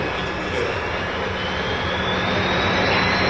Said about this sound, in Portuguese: vocês estão todos a bordo, sabem disso, nós né? estamos a bordo de um avião da LAP, é isso? Estamos sobrevoando, já voando? Sobrevoando não, voando, estamos voando.